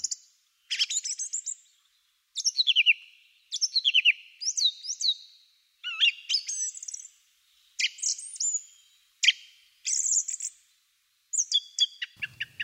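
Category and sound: bird, song thrush singing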